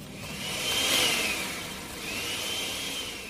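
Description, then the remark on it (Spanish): An electric blender that has switched itself on again whirs loudly with a high motor whine, surging to a peak, easing off, then building again in a second burst. No voices are heard. “Se prendió de nuevo la licuadora.”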